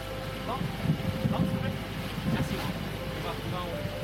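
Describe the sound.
Steady, blustery wind roars across the microphone aboard a sailboat sailing with the wind almost head-on, a constant low rumble with gusty swells, while muffled voices murmur faintly underneath.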